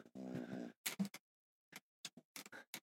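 A dog makes a rough snorting noise, then a run of short, irregular breathy bursts like panting or snuffling, quiet overall with no talking.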